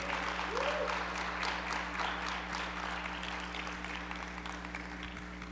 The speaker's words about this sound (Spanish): Dale un aplauso fuerte, fuerte al Señor, pero fuerte, fuerte.